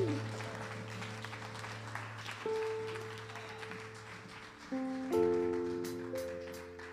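An audience applauds for the Lord steadily for several seconds, a dense wash of clapping over sustained keyboard chords that shift and swell partway through.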